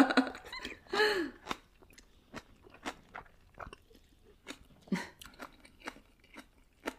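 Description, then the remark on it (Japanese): Someone eats bean sprout kimchi soup full of bean sprouts (kongnamul), with a run of crisp, crunchy chewing and biting clicks at an irregular rhythm, a few louder bursts standing out. No one talks. “この、もやしがいっぱい入ってるのいいね。”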